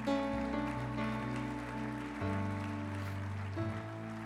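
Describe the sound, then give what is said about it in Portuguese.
At a church service in Brasília, a steady wash of audience applause continues throughout, mixed with sustained keyboard chords that shift pitch a couple of times, staying loud and even without any talking. “Pode aplaudir se começou.”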